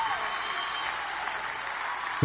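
A steady wash of dense clapping from a crowd continues throughout, even and moderately loud, with a voice cutting in briefly at the very end.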